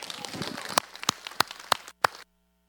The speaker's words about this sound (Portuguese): Vamos dar uma, uma salva de palmas para Deus?